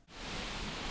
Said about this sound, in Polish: jest szum, słychać szum wiatru, ale siedzimy na zewnątrz. Dzisiaj siedzimy jest gorący, upalny dzień i nie ma innego wyjścia.